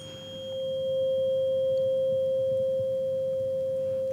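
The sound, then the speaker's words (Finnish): A single steady pure tone, presented as the 'love frequency', hums without a break for the whole stretch, smooth and unwavering at a moderate level, with only a faint low background rumble beneath it. “Siis rakkausääntä.”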